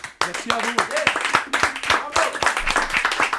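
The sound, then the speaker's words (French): Steady applause from a crowd, dense overlapping claps filling the whole clip, with voices talking over the clapping. “Je vous le disais, encore mille merci, on vous applaudit encore mille fois.”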